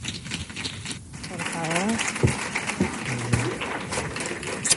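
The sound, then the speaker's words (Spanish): A crowd applauding a speaker at a talk claps steadily throughout, a dense crackle of many hands, with a few voices calling out briefly over the applause. “Un fuerte aplauso para ella.”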